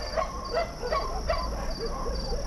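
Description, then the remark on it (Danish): Several dogs bark in a quick, steady series of sharp yaps over a constant low background hum with no one talking. “Problemet er så, at det kun er de hunde, der er foran mig, som reagerer.”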